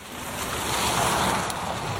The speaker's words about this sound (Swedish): det är ljuddämpade däck och ljudisolerade glasrutor för att få ner vägljudet men det susar ändå lite i kupén när man kör på motorväg.